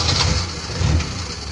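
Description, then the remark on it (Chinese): A car engine turns over and settles into a steady low rumble, with a couple of swells in the throaty drone across the short stretch and no voices. “继续开始我们开心快乐的旅程，继续踏上我们幸福充满歌声的小汽车。”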